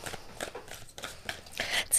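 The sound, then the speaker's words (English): A deck of cards being shuffled for a tarot card reading: a quiet series of crisp, papery riffling bursts in an uneven rhythm, building to a slightly louder, brighter flurry at the end. “Why am I bad at shuffling today?”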